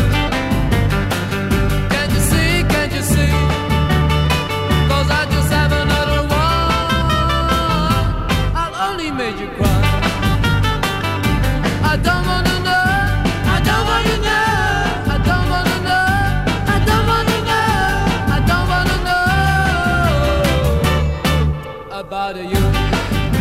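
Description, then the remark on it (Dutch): A rock band plays loudly and steadily, with driving drums, bass and layered guitar-like tones filling the whole stretch, pausing only briefly near the end. “En er speelde dus een rockgroepje.”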